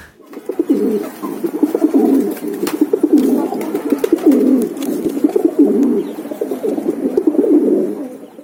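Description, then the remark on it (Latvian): A pigeon coos in a steady, repeating series of low, throaty rolling calls, each swelling and fading in a soft rhythm, with no voices present. “Man liekas, tas ir balots.”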